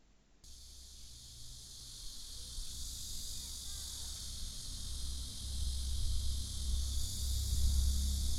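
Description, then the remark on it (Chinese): Loud summer cicadas buzz in a continuous, high, hissing drone that holds steady and swells slightly toward the end, with a low rumble underneath and no one talking, recorded near trees on a very hot summer afternoon. “听到蝉很大声，可以猜到是夏天吧？”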